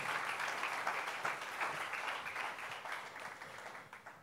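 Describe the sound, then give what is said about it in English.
An audience at a church worship service claps steadily for several seconds for the Lord, a dense wash of many hands applauding together at fairly even volume, tapering slightly toward the end with no one speaking. “Let's clap our hands for the Lord.”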